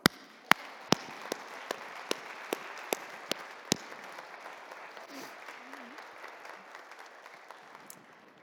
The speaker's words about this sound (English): We're worshiping God, and yet we can't sing and do some of the normal things, but we certainly can clap. I think that's a great idea,